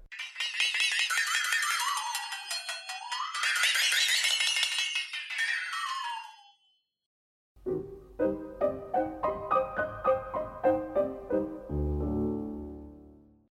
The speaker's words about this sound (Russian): Флексотон. То здесь вот звук получается за счет перетягивания вот этой пластинки, и вокруг металлические, э, металлические на нее тоже бьют такие маленькие шарики. Она изображает обычно какой-нибудь вьюгу, ветер, не знаю, тоже что-то вот такое.